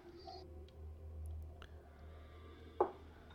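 A die clatters briefly as it is rolled, landing on an 8: a few faint ticks and then one sharper knock near the end, over a quiet, steady low hum.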